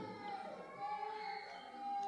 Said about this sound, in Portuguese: Não, não se distraia, é só uma criança chorando. Ela está fazendo o que ela sabe fazer, não se distraia.